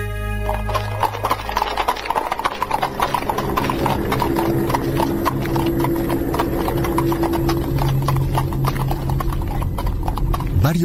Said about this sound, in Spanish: hombres, en comitiva, cabalgaron sobre sus caballos los casi 25 kilómetros que separaban a Bolsena de Orvieto